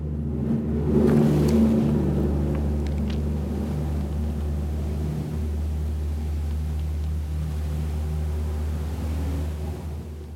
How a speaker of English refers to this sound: that was a loud truck.